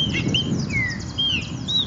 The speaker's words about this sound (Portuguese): Oh, passarinho encantador, ai, até gosto.